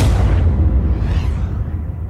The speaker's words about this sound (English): The third bullet is fired point blank between Phil's eyes.